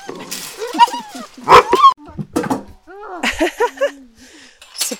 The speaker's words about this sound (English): puppy feeding lasted about 30 seconds. That was intense.